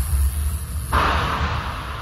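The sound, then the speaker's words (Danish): Roar of the SpaceX Crew Dragon launch at liftoff for the Huginn mission to the International Space Station on 26 August, in ESA footage: a deep, steady rumble that swells about halfway through into a louder, hissing roar, sustained, with no voices. “Ja, det her er ESA's optagelser fra den 26. august, hvor Hugin-missionen blev skudt i gang, og Andreas Mogensen sammen med sine tre astronautkollegaer ombord på SpaceX Crew Dragon-rumskibet drog afsted mod den internationale rumstation.”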